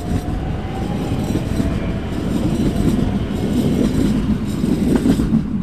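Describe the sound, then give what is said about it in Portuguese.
A train arriving half an hour late rumbles steadily along the rails, a dense low roar with faint metallic rattling that grows slightly louder toward the end, with no voices present. “comboio chega com meia hora de atraso.”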